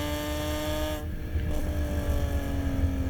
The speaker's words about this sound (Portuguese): Essa, esse esporro sonoro aí que vocês estão ouvindo é o motor M54 da BMW. motor 6 em linha que foi feito de 2000 a 2006. motor que tinha 2.2, 2.5 e 3 litros. Esse que vocês estão ouvindo é 3 litros.